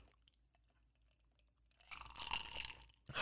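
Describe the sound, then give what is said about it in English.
A quiet stretch of faint clicks and handling, then a wet slurping sip of a Stok cold brew coffee drink lasting about a second, followed by a short burst of another sip. “You guys want another sip of Stok?”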